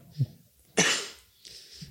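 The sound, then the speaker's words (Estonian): A person coughs after trying to make a snare drum sound while inhaling: a single fairly loud cough bursts out after a brief throaty catch, its rough breathy tail fading over about half a second, followed by a soft exhale. No talking. “mul ajas köhima see natuke, kui ma proovin seda praegu mm..”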